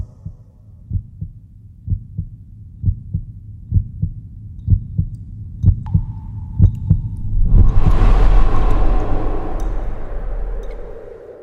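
A steady, thumping heartbeat pulses at a regular rhythm, low, heard inside a cave, before a swelling rush of broad ambient noise and a faint sustained tone build up and wash over it.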